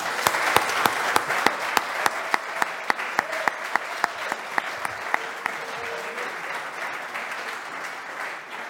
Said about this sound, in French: Moi, je dis bravo et applaudissements pour vous.